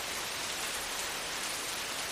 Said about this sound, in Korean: 형, 원래 건기에도 비가 오는 거야?